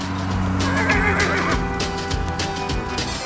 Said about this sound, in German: Unser Tier macht ein seltsames Geräusch, das man Wiehern nennt. Es ist mit einem anderen Vierbeiner verwandt, der ebenfalls für seine Rufe bekannt ist. Das ist jedoch nicht das Tier, das wir suchen. Unser Tier hat eine Mähne.